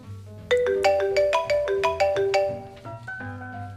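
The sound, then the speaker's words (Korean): A bright electronic ringtone of an incoming call from the speaker's older sister plays a quick, bouncy melody of clear synthetic notes, fairly loud, with a soft background hum and no talking. “언니는 아주 종종 제법 종종 저에게 상황극을 요구하는 전화를 걸어왔고”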